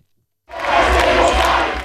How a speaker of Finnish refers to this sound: Kööpenhaminan Fellet-Parkenissa yleisöä huudattaa Tanskan mahdollinen tuleva pääministeri, sosiaalidemokraattien puheenjohtaja Mette Frederikseen.